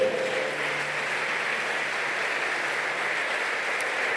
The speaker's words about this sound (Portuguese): Aplauda esse Deus maravilhoso.